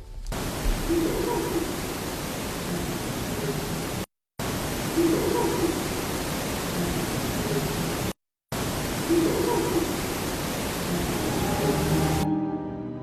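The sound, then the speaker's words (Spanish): A psychophony recording: a loud wash of hissing static plays three times in a row, split by short silent gaps, with a faint, muffled voice-like murmur buried in the noise each time, heard as saying "que te cojo". “Pero además esa de psicofonía de que te cojo, que te cojo.”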